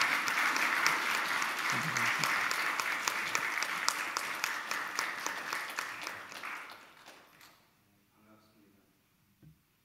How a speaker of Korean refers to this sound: 여러분 올라오실 때 뜨거운 박수로 환영해 주시고 또 맞아 주시면 귀한 말씀 드리면서 우리 은혜 넘치리라 믿습니다.